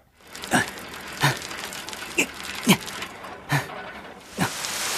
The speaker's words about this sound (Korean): 어, 아, 뭐야? 아, 소나기야? 아 진짜. 빨리 가자.